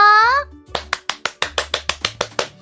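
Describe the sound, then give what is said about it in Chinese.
After a brief high-pitched vocal cheer, children clap for themselves and for Sister Jinyin, a character in a story, about a dozen times in a quick, steady rhythm, each clap crisp and sharp. “那我们来帮自己还有金银姐姐拍拍手。”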